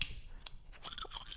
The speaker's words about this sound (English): This is exciting. Okay, he's cracking open the bottle.